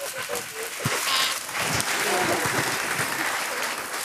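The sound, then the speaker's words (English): Audience applause fills the whole stretch, a dense, steady wash of many hands clapping at an even loudness, with a few cheers and voices mixed in. “Let's give it up for these guys.”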